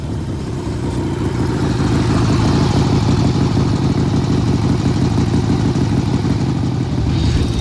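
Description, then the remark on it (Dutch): Several motorcycle engines idle at a motorcycle ride event in a steady, throbbing rumble, loud and continuous throughout, with a slight rise in revving near the end and no voices. “En ook hier weer twee distinguished gentlemen die staan te genieten van, eh, van motoren.”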